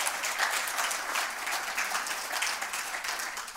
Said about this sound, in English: I'm super proud of the young man that you're becoming. And my favorite, yeah, you guys can clap for that.